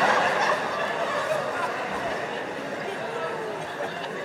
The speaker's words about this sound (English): As if I was gonna be walking down the street like, damn, there go that bitch bird.